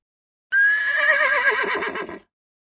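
A horse whinnies loudly, one long, shrill, quavering neigh lasting under two seconds before cutting off into silence, with no other sounds around it.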